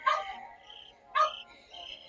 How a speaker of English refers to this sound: Sorry, I apologize for the dogs in the background.